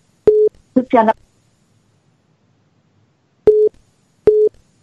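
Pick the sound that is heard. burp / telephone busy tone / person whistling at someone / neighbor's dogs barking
telephone busy tone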